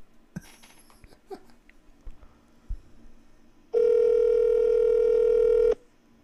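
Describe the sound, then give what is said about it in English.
Faint taps and handling noises as a phone call is placed to the speaker's mother lead into a single loud, steady telephone ringing tone lasting about two seconds before cutting off, with no one speaking. “I've never started with a phone call to my mom.”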